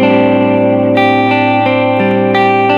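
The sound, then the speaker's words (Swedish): A sustained, harmonically rich instrument tone played through the B delay, its repeating echoes smearing each new note into the last, giving a thick, continuous wash with soft attacks about every third of a second. “Nej, det här är B-delayet.”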